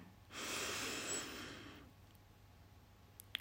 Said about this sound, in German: Und wir machen das jetzt. Wir nehmen jetzt zusammen fünf tiefe, bewusste Atemzüge und atmen jetzt zusammen ein.